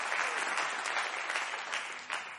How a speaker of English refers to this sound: Somebody ought to clap their hands and give him praise tonight. Hallelujah.